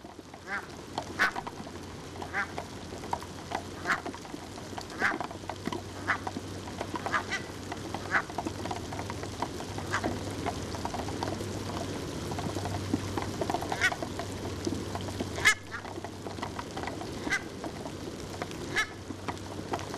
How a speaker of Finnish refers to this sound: Kalalokke ja ropina kuuluu aika niin, hyvin. Niin, kuuluu, joo.